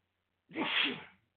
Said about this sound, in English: Uh, now I'm sneezing, guys. Sorry about that.